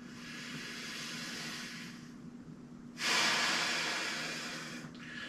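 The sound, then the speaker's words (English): A huge T. rex snorts air from its nostrils: a long hissing exhale, a brief pause, then a louder, harsher whooshing blast that trails off, with a short puff at the end. No talking. “and like all there's just a ripple a ripple from the air the air that was just expelled out of this thing's nostrils all the clothes are waving in the thing in the distance”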